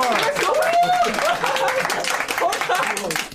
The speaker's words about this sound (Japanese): 二0度目二0回こんな拍手もらえるんだ